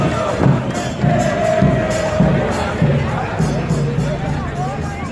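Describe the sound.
A large crowd of Cruz Azul fans shouts and chants in support as public service buses arrive at the Azteca stadium, the Coloso de Santa Úrsula, a dense wall of voices with rhythmic thumping beats pulsing underneath, loud and continuous throughout.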